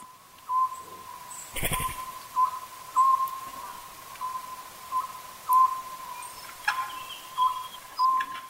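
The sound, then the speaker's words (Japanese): A Japanese scops owl calls repeatedly, giving short, mid-pitched hooting notes heard as "buppōsō" in a steady, repeating rhythm over a constant faint hum, with one brief rustling burst partway through. No one speaks. “この葉くの鳴き声は仏法僧と聞こえます”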